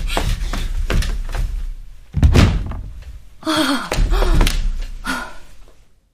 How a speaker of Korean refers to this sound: 철석, 쾅, 털썩 마지막으로 들린 소리는 엄마가 주저앉는 소리 일터였다.